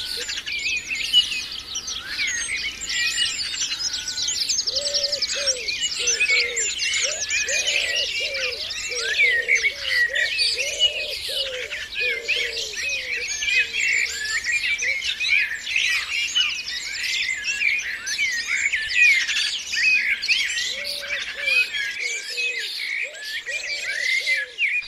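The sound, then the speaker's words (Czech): A dense, continuous chorus of many birds singing and chirping together at a site near human dwellings in Great Britain in 1998, with lower repeated calls, likely from a nearby rook colony, pulsing through at intervals. No one speaks. “takhle nějak možná zpívali v roce 1998 ptáci na jedné lokalitě ve Velké Británii.”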